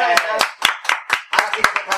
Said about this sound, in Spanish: ¡Qué bonita la comparsa, Hito Blanco! Nos ha enseñado, nos ha enseñado. Ha puesto un ventilador en el cariño. Sí, nos ha puesto un ventilador. vamos a aplaudirle otra vez